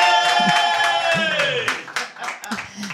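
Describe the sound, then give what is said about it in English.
Applause from a live studio audience welcoming two studio guests at Impro 2019: a steady patter of hand claps over a sustained, slowly falling musical chord, with a few voices murmuring underneath as the clapping thins out toward the end. “Yeah, applause.”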